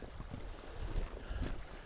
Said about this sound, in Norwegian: Men det er litt sånn Blåser litt sånn kaldt. Det er liksom sønnavind, da, så det Sønnavind er jo deilig, det, for da tenker jeg at vinden kanskje blir presser tidevannet litt sånn ekstra godt inn her.